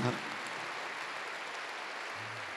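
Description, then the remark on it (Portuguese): An audience applauds the Lord in a steady, dense wash of clapping that sounds almost like rain, with a faint low hum underneath and no talking. “Aplauda o Senhor.”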